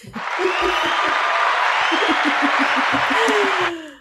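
Loud, dense applause and cheering fill about three and a half seconds, a steady clatter of many clapping hands with scattered whoops and a whistle, then cut off abruptly.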